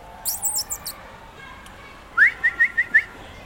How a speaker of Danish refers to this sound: så plejer, plejer jeg lige at fløjte lidt og, øh, og lave sådan et lyde, fordi det skal han jo helst ikke reagere på.